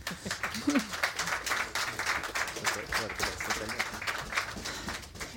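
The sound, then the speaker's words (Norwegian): An audience applauds steadily for several seconds after speakers are introduced, a dense, continuous patter of many hands clapping at once, fairly loud and sustained without letting up. “Kan vi få en applaus?”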